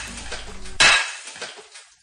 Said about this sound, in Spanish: frente a una mesa con una pila de platos encima que sin dudar empecé a romper contra el suelo a pesar de mi apellido italiano, rompí uno tras otro como un griego más.